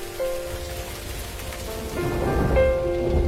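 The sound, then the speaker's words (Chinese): Heavy summer rain hisses steadily, and a deep rumble of thunder swells in the second half, growing louder. A few soft sustained tones sit faintly over the downpour. “你走的第一个夏天，雨水疯涨。”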